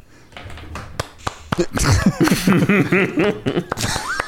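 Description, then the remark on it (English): A handful of soft, widely spaced hand claps, polite and unhurried like a golf clap, followed by laughter and voices talking over the end. “that's a that's a very uh, good golf clap.”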